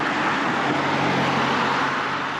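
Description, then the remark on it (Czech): Cars pass a cyclist on a road in Prague, overtaking from behind as the cyclist approaches an intersection, a loud, steady roar of engines and tires that fills the whole moment without pause, with no one speaking. “Za mnou jsou auta, se mě snaží objíždět.”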